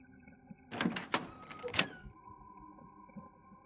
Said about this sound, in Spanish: Apenas había pasado frente a ese cuarto cuando a mis espaldas la puerta se abrió.